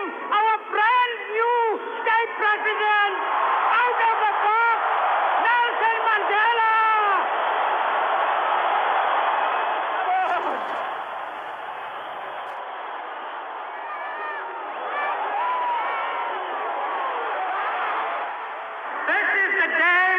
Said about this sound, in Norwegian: I Cape Town 9. mai 1994 jublet titusener av sørafrikanere da deres nye president ble presentert for folket for aller første gang.